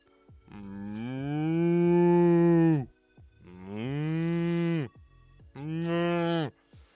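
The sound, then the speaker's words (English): A person imitates a cow mooing: three drawn-out, low lowing calls in a row, the first longest, loud with short pauses between and no other talk. “If you want to get like the like the um vibraty sound that they get because they, they have the whiskers in the mouth, you gotta just put your teeth on your bottom lip and just be like so fucking good at mowing.”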